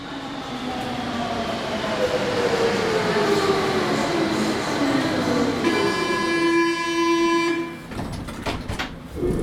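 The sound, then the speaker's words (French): A metro train rumbles into the Balma metro station in France, its motor whine sliding down in pitch as it brakes, then a steady multi-tone chime sounds before doors clatter and the station noise resumes. “Bon, en arrivant au métro à Balma, on ne savait pas trop à quoi s'attendre.”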